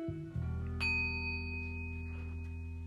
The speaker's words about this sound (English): It was a loud bell, but hey, they probably heard it.